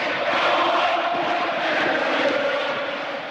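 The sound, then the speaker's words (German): A large crowd of football fans in a stadium roars and chants, with Werder Bremen leading 5–1, in a dense, continuous wash of voices, loud and steady throughout, easing off slightly toward the end. “Oh oh, nun gibt es hier die ersten Gesänge im Stadion.”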